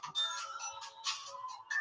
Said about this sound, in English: Sorry about the phone.